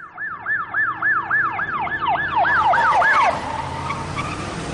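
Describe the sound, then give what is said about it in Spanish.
A loud, rapid wailing ambulance siren sweeps up and down about ten times, then fades as the ambulance passes by on the road, leaving traffic rumble behind. “Una ambulancia pasa por delante de él.”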